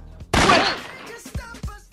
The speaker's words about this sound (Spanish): Oye, hay disparo para salir increíble.